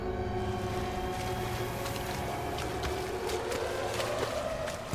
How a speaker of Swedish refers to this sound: John paddlade beslutsamt genom det kalla vattnet.